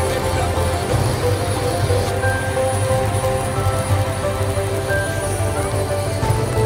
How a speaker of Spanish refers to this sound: Es un avión, no, es un helicóptero